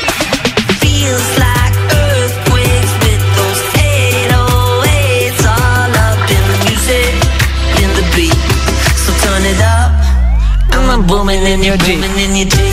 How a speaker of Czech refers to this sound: A je to taková písnička, že si vždycky představuju, že jedu někde po nějaký silnici, svítí sluníčko